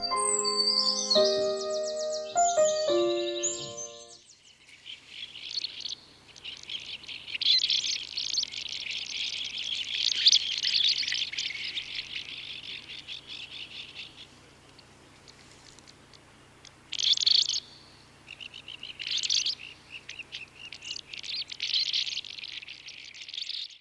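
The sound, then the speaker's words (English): Ancient murrelets (Synthliboramphus antiquus), a seabird, call in a dense, high-pitched chorus of chirps and trills, overlapping in bursts that swell and fade, after a brief tonal musical opening. No one speaks. “You just heard the sound of the ancient murrelet.”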